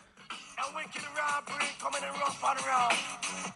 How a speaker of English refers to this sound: We got you some … this week and a song….